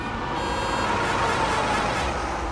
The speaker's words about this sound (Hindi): single lane वाले उस highway पर दौड़ते ट्रक हवा से बातें कर रहे थे